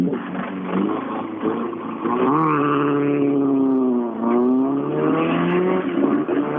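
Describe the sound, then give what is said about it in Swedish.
A rally car on asphalt tyres revs hard and accelerates, its harmonic whine rising and dipping through gear changes, loud and continuous with a rough, buzzing tone and no talking. “Riktigt fina asfaltsdäck här på Det Där måste vi lyssna på också.”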